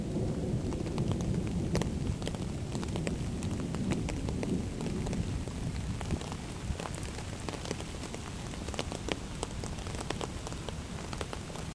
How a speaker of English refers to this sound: I woke up to a thunderstorm this morning